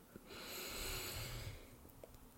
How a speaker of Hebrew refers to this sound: הרבה פעמים כשרוצים לשים לב לנשימה שלנו, משתמשים גם בנשימות נר. קחו נשימה עמוקה דרך האף. הרגישו איך החזה והבטן שלנו מתמלאים בהרבה אוויר.